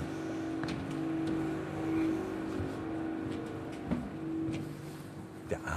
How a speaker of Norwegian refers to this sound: med en gang en litt annen eh, lyd der, men vi hører industrilyden ligge litt bak.